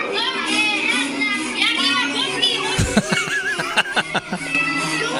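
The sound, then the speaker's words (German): Loud party music plays from a small, tinny phone video recorded inside an airplane turned into a disco, thick with chattering voices and laughter, with sharp beat-like hits breaking through in the second half. “Das ist doch kindgerechte Musik.”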